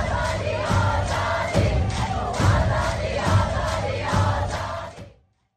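A large crowd chants "Azadi" (freedom) in loud unison, repeating the call in a steady rhythmic beat about once a second, then cuts off abruptly after five seconds.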